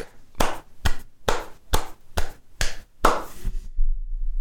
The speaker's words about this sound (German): Ich hoffe, es waren jetzt deine Hände, die da geklatscht haben.